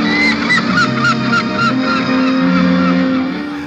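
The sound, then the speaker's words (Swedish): A loud, dense chorus of seagulls flying up into the sky and screeching, with harsh, overlapping cries repeating rapidly and without pause over a steady background hum. No one speaks. “då klipper ju han till extrem närbild på fiskmåsar som flyger upp i skyn och som, som, som, som tjuter, alltså skriker som fiskmåsar skriker.”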